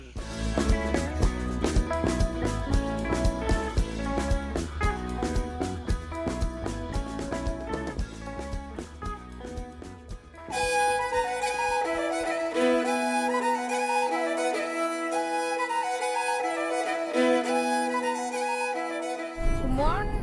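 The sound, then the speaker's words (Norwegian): Piano music plays continuously from a record player on Radio Revolt, first a dense, busy passage with steady rhythm, then shifting midway to brighter, ringing sustained chords and melody lines, moderately loud with no talking. “og da har vi satt i gang platespilleren. Dere skal få lov til å høre en fett og pianofylt med dagens ungdom her i feriekolonien.”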